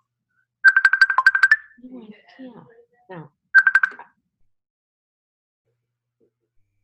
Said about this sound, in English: Sorry. How is that happening? It's ringing on my computer. How is that happening?